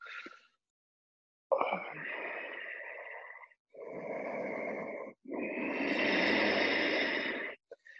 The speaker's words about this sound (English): Generate the sound of your breathing.